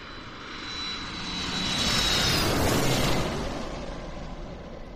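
A jet airplane engine roars steadily with a broad rushing hiss and a high whine, swelling louder toward the middle, then easing slightly; no voices.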